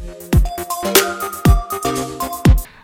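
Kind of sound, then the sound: signal or alarm, phone call ringtone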